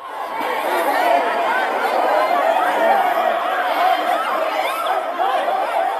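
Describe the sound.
A dense crowd of many voices shouting and clamoring at once, steady and loud throughout, echoing inside the Cathedral of Managua, Nicaragua, as a pro-government mob enters the church.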